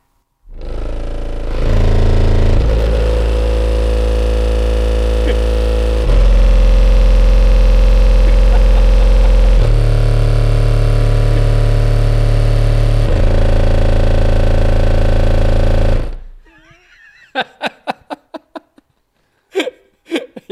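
Very loud, booming bass pounds for about sixteen seconds from about six 12-inch Gladen subwoofers in a reflex enclosure, with just over 10 kilowatts of power, in a 2005 Volkswagen Caddy. It shifts through several sustained low notes, heard from outside the vehicle, then cuts off and people chatter and laugh.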